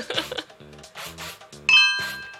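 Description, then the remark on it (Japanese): A bright, cute chime sound effect from a sound-effect button labeled "pororon" rings out near the end and sustains with shimmering tones, following a few soft rubbing, scraping bursts earlier on. “なんか可愛い感じだねあそれじゃんこれでもだってポロロンって書いてありますよこういう感じだよね”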